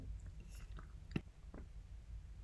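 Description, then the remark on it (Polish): A single loud swallow of saliva, a quick wet gulp in an otherwise quiet moment, with faint mouth clicks around it and no talking. “to jest niestety, mm, aż po prostu przełknęłam ślinę tak głośno, y, chyba jest stresik przed tym tematem”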